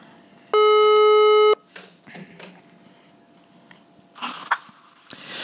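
A single loud, steady telephone ringback tone sounds for about a second while an outgoing call to a friend in Banyuwangi connects, followed by quieter rustling and faint background noises on the line.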